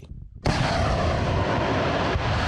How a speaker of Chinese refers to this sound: 乌军将发射台装在小型战车上，方便移动。他们先派出无人机侦察，然后瞄准数公里外的俄军发射火箭炮。